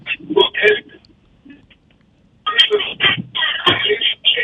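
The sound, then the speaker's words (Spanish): A garbled, unintelligible caller's voice crackles over a narrow, tinny telephone line into a radio call-in, in broken bursts, with a short near-silent gap before the distorted talk resumes. “no lo estoy oyendo ah. bien, no lo oigo bien.”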